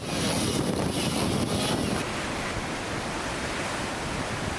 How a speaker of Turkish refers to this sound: Antalya'yı kuvvetli rüzgar ve sağanak vurdu.